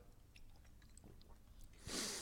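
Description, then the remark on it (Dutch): Soft mouth sounds of someone sipping water, with faint wet clicks and swallows, ending in a louder breathy rush as the drink finishes. No one speaks. “Even een slokje water.”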